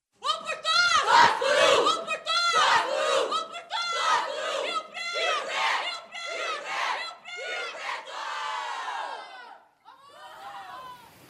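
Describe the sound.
A loud stadium crowd at a real match chants the team nickname "Ferrinha" for Ferroviária in steady, rhythmic bursts, many voices shouting together in unison before a short pause and a last ragged cheer.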